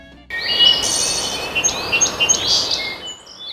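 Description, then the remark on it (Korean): Several birds chirp and tweet in short, repeated calls over a steady outdoor hiss, clear with no voices, at a quiet rural farm outside Seattle, Washington State, home to a rehabilitation center for smartphone addiction. “새소리밖에 안 들리는 조용한 시애틀 외교의 한 시골 농장.”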